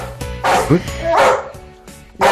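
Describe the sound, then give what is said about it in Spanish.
A dog at a project that trains dogs to help their adoption barks several times in quick, loud bursts with short gaps between them, while a person talks in the background. “perros pueden encontrar familia”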